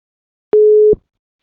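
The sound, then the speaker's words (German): A single short, steady telephone ringback tone of an outgoing call, a clear mid-pitched beep of under half a second with a click at each end, heard alone on the line with no talking. “Einfach mal anklingeln. Wir überraschen mal jemanden.”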